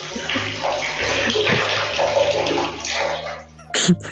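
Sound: water running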